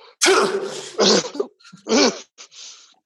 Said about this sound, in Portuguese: Dá um espirro.